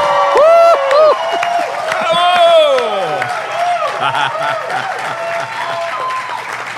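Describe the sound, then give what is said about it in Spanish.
A lively live crowd in Panama cheers and applauds loudly, with whoops and high shouts rising over steady clapping, and a bit of laughter mixed in near the start. “Como ya ustedes están escuchando, si tú nos estás escuchando en este episodio, eh, desde donde sea que lo estés haciendo, ya sentiste aquí el calor panameño, ¿verdad?”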